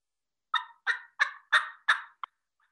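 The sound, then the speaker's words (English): A Legacy mouth turkey call, held against the roof of the mouth, imitating a hen's yelps: five raspy, evenly spaced notes followed by a short clipped one, loud with no talking. “And, um, you know, it's just a, a bunch of, I'm using legacies right now because I find they're easy out of the box, but there, I mean, there are a million different ones I've used over the years.”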